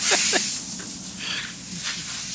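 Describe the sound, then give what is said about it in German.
Foam being sprayed onto a car in a car wash and left to soak in, a steady airy hiss that swells and fades over a couple of seconds, with a few brief chirping squeaks near the start and no talking. “Jetzt kann der Schaum schön einweichen und ja.”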